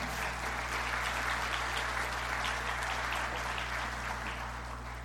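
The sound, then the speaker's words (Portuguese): A crowd applauds steadily, a dense wash of many hands clapping at once that holds for several seconds at a moderate level before easing slightly near the end, welcoming two people called up to the front. “Dá uma salva de palmas”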